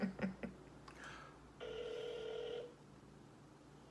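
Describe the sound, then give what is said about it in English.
A single ringback tone from an outgoing phone call to a cousin sounds for about a second, steady and fairly clear, preceded by a few soft tapping clicks, with no one speaking. “so now what I'm about to do, I'm about to call my cousin.”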